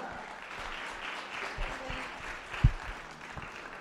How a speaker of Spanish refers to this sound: Venga, un aplauso fuerte, Iglesia.